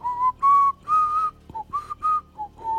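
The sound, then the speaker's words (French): Someone whistles a short, simple tune of about eight clear notes, some held and some clipped, rising and falling gently in pitch, fairly loud with no talking over it. “par cette petite voix matinale, vous savez, qui vous réveille et qui vous vous fait, comme qui dirait, une espèce de de petite mélodie genre dans la tête qui vous sifflote un truc genre.”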